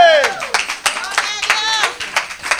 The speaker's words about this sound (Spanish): Otro aplauso, el Señor merece más que esto, ¿ok? Otro aplauso más grande.